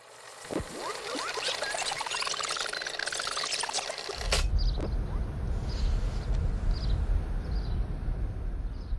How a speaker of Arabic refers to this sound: انتوا سامعين صوت العصافير؟ التسجيل ده من فيديو أرشيفي بعنوان القوات الأمريكية تدخل العراق